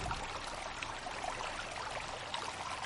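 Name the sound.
flowing stream water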